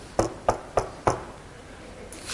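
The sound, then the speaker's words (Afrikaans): Four sharp knocks in a quick, even sequence, fairly loud, a man rapping on a door, followed by a short quiet pause with no voices. “Hy klop.”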